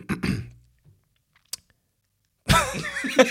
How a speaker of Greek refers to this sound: λοιπόν, ε, δεν έχω κάτι να πω, απλά καθάρισα το λαιμό. Πρέπει να καθαρίζουμε το λαιμό μας αυτό γενικά.